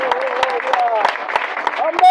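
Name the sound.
audience applauding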